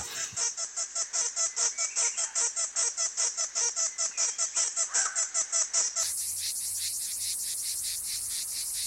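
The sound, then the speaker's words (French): A dense chorus of male cicadas buzzes loudly in rapid pulsing bursts, each male producing its signal against the others', then shifts into a higher, steadier continuous drone for the last few seconds. No voices. “Et donc ça provient d'un épiphénomène qui est ce, ce cœur qu'on entend.”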